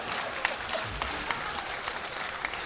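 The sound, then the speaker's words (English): Steady audience applause, many hands clapping in a dense, continuous patter with a few sharper claps standing out, moderately loud and sustained throughout with no voices. “Well, was like a round of applause for quite a good putt.”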